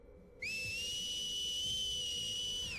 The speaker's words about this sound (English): There's a loud, piercing whistle